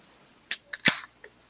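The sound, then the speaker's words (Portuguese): A beer can cracks open: a couple of sharp metallic clicks, then a louder pop with a short burst of fizzing hiss, and one faint final click. No one speaks. “se eu vou hum. abrindo uma latinha.”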